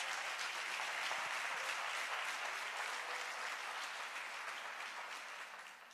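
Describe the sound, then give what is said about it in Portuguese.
An audience applauds for Jesus in a dense, steady wash of many hands clapping, loud and sustained throughout before easing off slightly in the final second, with no voices over it. “Será que você pode aplaudir mais forte?”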